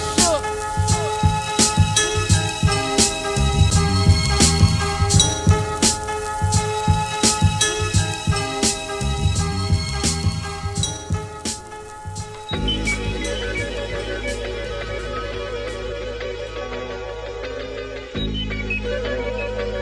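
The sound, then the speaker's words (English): A hip-hop track plays loud, punchy drums and layered melody driving the first part before it shifts into a heavier, sustained bass section with no talking over it. “That's how shit's supposed to sound.”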